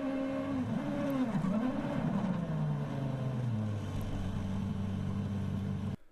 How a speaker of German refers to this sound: Das Comeback der Safari Rally Kenia in Afrika endet für Kalle Robampere auf der siebten Prüfung in einer Sandgrube. Die Sicht gleich Null, das Auto festgefahren. Der Motor drohte im Sand zu ersticken.